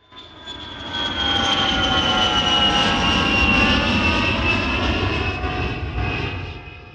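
A loud, steady airplane engine drone with a high whining tone that slowly shifts pitch, rumbling continuously for several seconds before easing slightly at the end.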